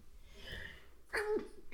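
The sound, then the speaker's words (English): A single sneeze bursts out, sharp and breathy with a short voiced tail, following a moment of quiet and breathing. “Bless you.”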